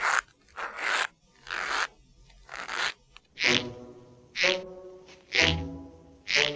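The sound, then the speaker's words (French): Rhythmic leather creaks mimicking footsteps, made by bending a strip of leather: four rough crunching steps, then four squeakier, more tonal creaks at a steady walking pace, with no voices. “Reproduire le grincement des pas en pliant une bande de cuir.”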